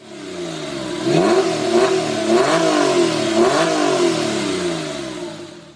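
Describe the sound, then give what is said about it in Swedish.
A grey, non-turbo sports car with its factory-fitted sport exhaust system revs up several times in a row, each rising and falling throaty surge loud, with no voices. “Och med det originalmonterade sportsystemet så brölar den gött. Lyssna på det här.”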